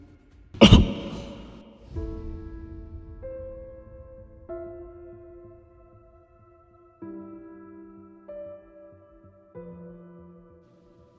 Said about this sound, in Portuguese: Cai de joelhos no chão tossindo.